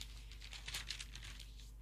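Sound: turning a paper page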